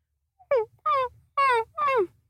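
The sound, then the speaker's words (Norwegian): A person vocally imitates their dog at home whining: four short, high-pitched nasal whines in quick succession, each bending in pitch, fairly loud with no talking around them. “Jeg har en hund hjemme som eh, lager denne lyden her hele tiden.”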